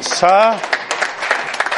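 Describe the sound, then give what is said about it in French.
An audience breaks into steady, dense applause for Jesus right after a short raised voice, the clapping at moderate loudness for over a second. “On applaudit Jésus.”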